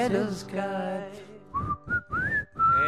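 A clear whistled melody of gliding, held notes rises prominently over a band's backing music, following a sustained instrumental passage.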